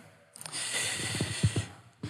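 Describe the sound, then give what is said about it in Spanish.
A person clears their throat: a harsh, raspy rumble lasting nearly two seconds with gravelly pulses, then a short extra huff at the end. No speech. “Lo que demora usted carraspeando la, la garganta.”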